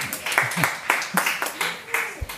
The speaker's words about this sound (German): Tosender Applaus hier von den Anwesenden im Saal. Wir hoffen, es wird auch bei den verantwortlichen Behörden gehört.